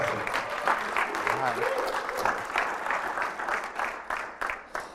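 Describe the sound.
Steady, dense applause from a large audience welcoming a speaker at Bluemont Church, with many hands clapping at once and faint voices and cheers mixed underneath, sustained at an even loudness throughout.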